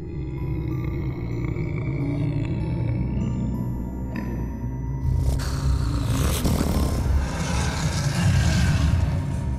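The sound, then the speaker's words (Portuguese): A deep, rumbling snore-like roar echoes through the rooms and halls of the Palácio da Pena, droning steadily for about ten seconds and swelling into a harsher, noisier growl halfway through, with no voices present. “Juntos sentiram-se melhor, quando de repente um ronco terrível ecoou pelas salas, salinhas e salões do Palácio da Pena.”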